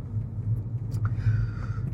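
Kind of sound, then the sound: vehicle, car driving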